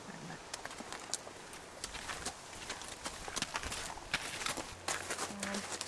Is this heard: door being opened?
no